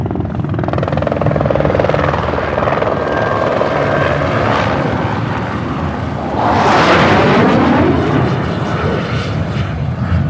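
Helicopter rotors clatter loudly overhead in a steady, pulsing drone, swelling as one passes around the middle, with a roaring sweep of engine noise before fading slightly.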